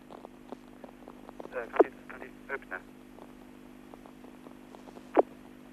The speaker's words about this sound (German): Wie Sie vielleicht gehört haben, wurden wieder einige Schüsse gewechselt und die Ambulanzen fahren wieder mit heulenden Sirenen von der Botschaft weg.